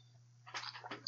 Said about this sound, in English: I'll just go ahead and take a sip now.